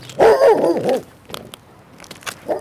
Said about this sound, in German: Es ist so ruhig hinter dem Haus, dass gleich die Hunde in den Schrebergärten anschlagen.